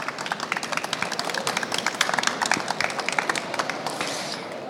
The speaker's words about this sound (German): Die haben einen Applaus verdient, oder?